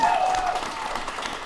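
A burst of crowd applause with cheering, dense and steady throughout, a bright whistle-like cheer rising early on, sounding like a canned studio audience effect.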